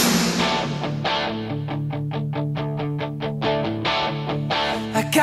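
A rock song plays loud and full, with a gritty distorted electric guitar holding steady chords while drums hit in a driving, regular beat. No voices speak over it.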